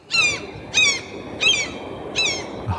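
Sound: gull calls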